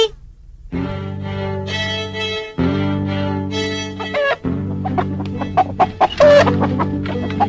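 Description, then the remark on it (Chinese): A mother hen, out looking for her chicks, clucks repeatedly and loudly with no one talking, drawn-out throaty calls at first, then quicker choppy clucks mixed with a few higher squawks. “鸡妈妈出来找小鸡了。”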